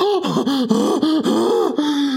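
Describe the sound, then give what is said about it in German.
A voice imitates the build-up to a sneeze with a rapid series of pitched, breathy gasps, each rising and falling, about eight in a row with no sneeze released. “Kennst du das, wenn du niesen musst?”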